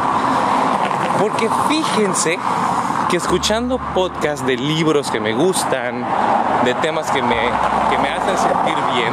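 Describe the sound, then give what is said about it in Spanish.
Steady street traffic rumbles underneath, with many cars passing in a continuous low drone while a man talks over it, in a place where people are starting their day. “eh, perdón por el ruido, disculpen, estoy en un lugar donde hay muchos coches ya, la gente comienza su día por acá.”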